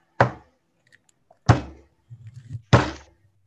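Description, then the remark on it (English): Three slow, solid knocks of knuckles on a door, evenly spaced over a few seconds, each with a brief dull resonance, and a faint low rumble between the last two. “just kind of wraps his knuckles on it and just knocks.”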